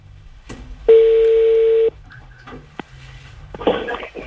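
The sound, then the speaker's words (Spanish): A telephone ringback tone sounds as one steady electronic beep lasting about a second, followed by quieter background noise and the start of a second tone near the end. “Bueno, nada, ahí está, suena.”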